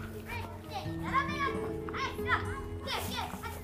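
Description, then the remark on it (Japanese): Several children's voices chatter and call out over a steady background hum as they play, apparently a card game (Pokémon cards or Yu-Gi-Oh), their excited, overlapping talk rising and falling throughout. “ちょっとね、いろんな子供たちが遊んでたりとかしカードゲームやってるっぽいですね。”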